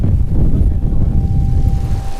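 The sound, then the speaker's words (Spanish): Strong coastal wind in San Mateo del Mar roars steadily, a dense low rumble buffeting without pause for the whole stretch, with a faint steady tone running underneath and no voices. “El sonido que se escucha al fondo es el viento de San Mateo del Mar.”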